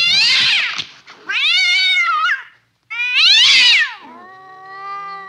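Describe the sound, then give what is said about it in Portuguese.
Cats fighting: loud, drawn-out yowls and wails in three long bursts, one starting with a harsh, noisy screech, then a lower trailing moan. No one speaks. “Rolou uma gatos. aqui, chat negrou.”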